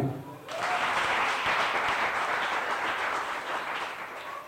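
After a brief moment, an audience bursts into loud applause, a dense, steady wash of many hands clapping that holds strong for several seconds and eases only slightly toward the end.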